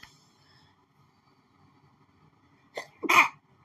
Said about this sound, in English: oh, excuse me, had a sneeze.